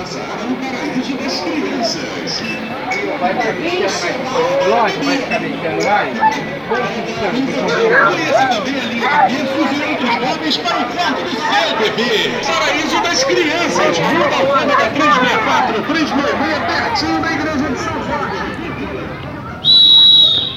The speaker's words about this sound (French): Dans les rues de Rio de Janeiro, un paysage sonore réalisé avec beaucoup d'amour par deux personnes qui vous souhaitent un excellent voyage.